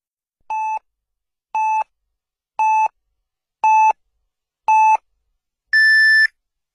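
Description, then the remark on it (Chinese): Radio time signal beeps on Zhengzhou News Radio (FM 98.6, AM 549) marking 23:00 Beijing time: five short, evenly spaced mid-pitched tones one second apart, then a longer, higher-pitched final beep marking the hour, all clear and loud with no voices. “北京时间二十三点整。”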